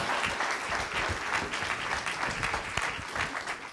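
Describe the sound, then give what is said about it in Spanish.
An audience claps loudly and steadily for several seconds as applause for the King of Kings, a dense, continuous patter of many hands with no voices standing out above it. “Puede darle ese fuerte aplauso al Rey de Reyes.”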